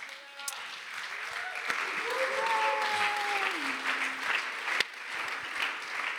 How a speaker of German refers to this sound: Und ich möchte jemanden auf der Bühne willkommen heißen, der von ihrem Leben möchte erzählen möchte. Und darum äh, lass uns einen riesen Applaus geben